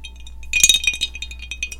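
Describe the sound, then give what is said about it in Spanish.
Ice cubes clink and rattle against a drink glass in a quick flurry of bright, high-pitched taps, loudest in the first second, then a few sparser, fainter chinks follow. “Eso que ustedes escuchan es el, trago”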